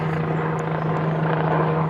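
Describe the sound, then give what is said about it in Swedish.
A helicopter flies overhead, its loud, steady rotor roar and low droning hum filling the whole moment without letting up. No voices are heard. “Vad tror du helikoptern vill oss här?”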